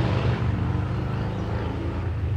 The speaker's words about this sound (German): Oh, jetzt fährt ein Motorradfahrer vorbei.